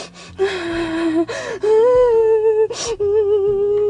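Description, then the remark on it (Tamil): A storyteller imitates Cinderella sobbing in the garden: a series of wavering, high-pitched crying wails broken by sharp gasping breaths, loud, with no other talk. “அப்படி தேம்பி தேம்பி தேம்பி அழுவலாம்”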